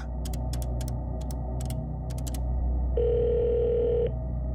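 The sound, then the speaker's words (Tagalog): A series of quick, sharp button clicks as a phone number is dialed on a telephone inside a restaurant, followed by a steady telephone tone lasting about a second, over a low, constant background hum. “bumalik ako sa loob para gamitin ang telepono”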